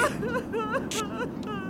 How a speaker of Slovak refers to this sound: Ale ženský hlas je čoraz výraznejší. Mení sa na nárek.